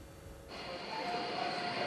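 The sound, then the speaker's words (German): Busy ambience of Stuttgart main railway station in the morning, with a steady rumble of trains, a high metallic squeal and faint tonal whines rising after a moment, no voices standing out. “Hauptbahnhof Stuttgart heute Morgen.”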